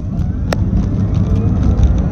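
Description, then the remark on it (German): An electric car accelerating: a steady low rumble of road and wind noise with a faint high electric whine running through it, and one sharp click early on. No one speaks. “Beim Elektroauto ist die Charakteristik eben die, dass das Geräusch, dieses S-Bahn-Geräusch, einfach nur lauter wird, aber nicht intensiver.”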